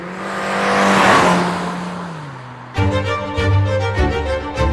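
A car engine revs and roars with a swelling screech like tires squealing, loud, then cuts abruptly into rhythmic music for the last couple of seconds.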